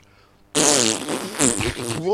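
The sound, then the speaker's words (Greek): A long, loud, buzzing fart sound with a wavering pitch suddenly breaks a quiet moment and sputters on for well over a second. “Τα αέρια οπ. Συμβαίνουν και αυτά.”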